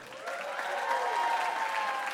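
An audience claps steadily for about two seconds, a dense, even patter of many hands at moderate loudness with no voices over it.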